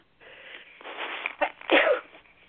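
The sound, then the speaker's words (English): A single sneeze, preceded by a couple of seconds of building, breathy inhalations and ending in a sharp burst with no talking. “I'm going to sneeze here.”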